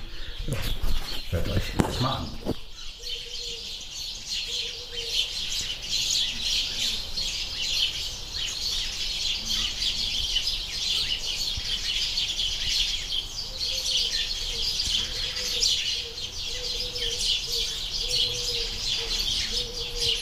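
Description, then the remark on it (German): A dense outdoor chorus of birds chirping and singing continuously, with some lower cooing calls woven in and a few brief knocks at the very start. “hört ihr wieder mal die Vögel. Die sind nämlich gerade sehr aktiv”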